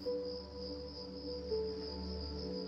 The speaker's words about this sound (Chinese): 你打开窗，有一股温热的夏天的风吹了进来，空气中。有蝉鸣的声音，